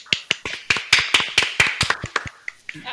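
A small group claps, giving brief applause: sharp hand claps in a quick, slightly uneven rhythm that tapers off toward the end, with no voices.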